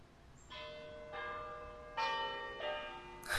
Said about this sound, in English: the dulcet tones of the Hall clock.